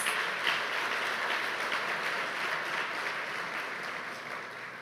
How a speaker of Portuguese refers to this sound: Glória a Deus. Aplaudo o nome do Senhor mais uma vez.